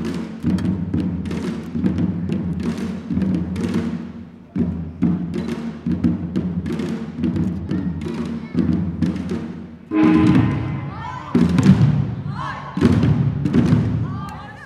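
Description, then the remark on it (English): A traditional Korean drum song played by a group of Korean Americans visiting from the East Coast, dressed in regalia, each with their own drums, sitting in a half circle in a field in the evening: steady, rhythmic drum beats without pause, and in the final seconds bright, ringing tones and voices rise over the drumming. “Each of them dressed in their regalia with their own drums as they beat out a traditional Korean drum song.”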